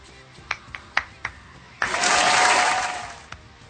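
A few scattered, sharp handclaps lead into a loud burst of applause from a group that swells and lasts over a second, then tapers off into a couple of final claps.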